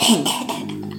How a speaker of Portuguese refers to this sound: Tô dando uma tossidinha aí.